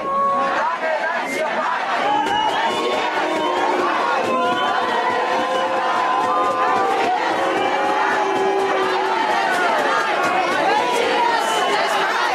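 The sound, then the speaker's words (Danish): A crowd of a couple hundred people waits outside a packed hall on South Langeland, Denmark, for the immigration and integration minister to arrive at a meeting about the Holmegård departure center. Dozens of overlapping voices form a dense, steady hubbub at an even loudness, with occasional raised calls rising above the murmur. “Der er helt proppet her uden for en humplehallen.”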